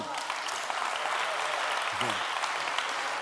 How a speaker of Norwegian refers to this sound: Skal vi gi Herren en klapp for? Amen.